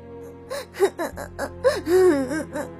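Sad crying over news that the baby dugong Mariam died: a string of short, quavering whimpers and sobbing gasps, each rising and falling in pitch, about a dozen uneven bursts with a longer wail near the end, moderately loud with no speech.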